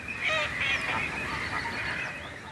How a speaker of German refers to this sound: Man hört die Rufe von Graugänsen, Rohrammern, Lachmöwen, Krick- und Stockenten, über mehrere Jahre werden an bestimmten Tagen Aufnahmen gemacht.